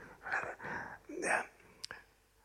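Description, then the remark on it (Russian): Breathy whispering into someone's ear, as in the children's game of broken telephone: a few soft hissing phrases with no voiced tone, ending in a quick sharp intake of breath. “Это когда садится э, значит, группа ребят, ну, мы дети были, и один так на ушко шепотом так...”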